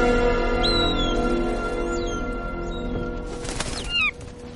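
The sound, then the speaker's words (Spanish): A bird, Horus, swoops by with a short, rushing whoosh of wings near the end as it flies toward the globe, while thin chirping calls sound over a steady, humming tonal background. “Horus vuela hacia el globo.”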